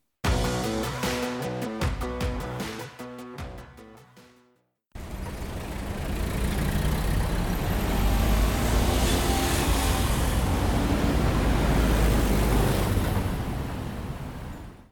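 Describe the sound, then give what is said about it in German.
After a short burst of music, a steady, loud roar of city car traffic takes over, with masses of cars crawling through the city, continuous engine rumble and passing vehicles, and no one speaking. “Die Massen an Autos, die sich durch die Stadt quälen, die schlechte Luft oder der ständige Autolärm.”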